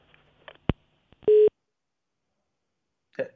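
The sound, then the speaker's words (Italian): Another telephone call connecting: a sharp click, then one short, loud, steady electronic beep, a pause of quiet, and a brief burst of a voice at the end. “Altra telefonata.”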